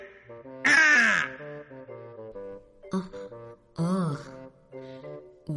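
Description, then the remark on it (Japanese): A large red bird lets out two loud, harsh caws a few seconds apart, over a steady background of music. “もしかしてそこにいる赤い鳥が、シェリーさんの探してた小鳥なの”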